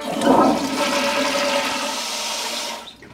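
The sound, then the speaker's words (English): A toilet flushes loudly, a rushing gurgle of water that swirls steadily for about three seconds before draining away and tapering off at the end. “Well, you might as well flush this time down.”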